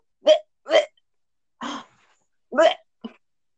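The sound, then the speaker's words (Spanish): A person makes five short, throaty fake retching and gagging noises, fairly loud, in irregular bursts with brief pauses between them; the last one is quick and clipped. “Pero, weón, sus arcadas son súper falsas, weón, mejórenlas así.”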